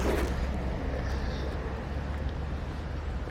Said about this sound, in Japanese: ちょっと風が強いんで、えー、すいませんお聞き苦しいかもしれませんが